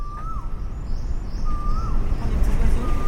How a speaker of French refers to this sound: C'est très surprenant d'entendre ça ici. ici. Parce que ici, le matin, c'est les petits oiseaux. C'est comme si on était dans un village.